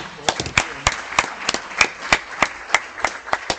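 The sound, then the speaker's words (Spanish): A smattering of applause for the brothers: sharp, crisp handclaps at an uneven, loose rhythm, moderately loud, as a small group claps for a few seconds over faint background murmur. “Denle un aplauso a los hermanos.”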